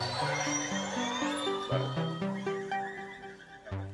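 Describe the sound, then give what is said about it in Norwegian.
Underwater animal whistles, a steady run of bright, harmonic tones that step up and down in pitch for several seconds, with a faint click near the end and no voices. “Men så, hvis du hører nøye etter, så hører du en sånn knepp.”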